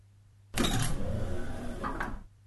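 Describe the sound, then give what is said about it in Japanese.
An automatic door at a photo shop slides open with a steady electric motor whir that starts abruptly, holds for nearly two seconds with a faint clunk near the end, then stops. “ウィーンと自動ドアが開いて、入ってきたのは、キスのおじさん。”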